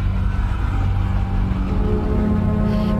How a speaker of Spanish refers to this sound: Se está escuchando de fondo, muy de fondo, ¿no? Un tren, ¿no? Eh, la maquinaria del tren